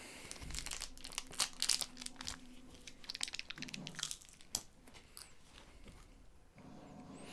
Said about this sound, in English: That's definitely dried beef. I fucking heard that snap over here, dude. This is the real snap into a Slim Jim.